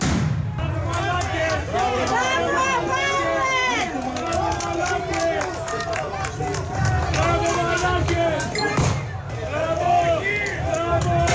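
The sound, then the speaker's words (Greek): A large crowd cheers and applauds steadily as police officers pass by, many voices shouting and whooping over a dense wash of clapping, loud and continuous throughout. “περνούν οι αστυνομικοί και χειροκροτάει ο κόσμος.”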